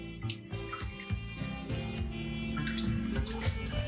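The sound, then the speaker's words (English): Chilly bathwater sloshes and swirls in a tub, a steady wash of watery movement with small splashy surges and no voices. “Well, my water's getting chilly and my fingers are all pruny, so I'm gonna drain my water here.”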